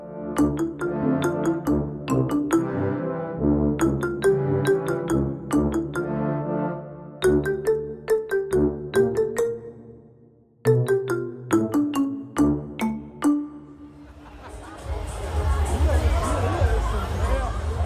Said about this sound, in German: Es ist mittags unter der Woche ich höre so richtig dieses Rauschen der Fahrgeschäfte und dieses Wiesengemurmel. Ein schöner Tag.